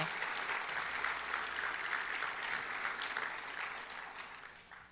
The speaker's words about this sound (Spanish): Denle un fuerte aplauso